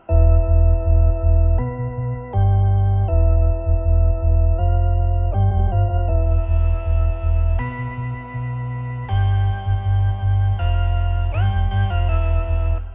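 An isolated heavy dub bass line playing the old motif on its own, with long sustained low notes shifting pitch every second or two in a slow, repeating pattern; loud, with no voices.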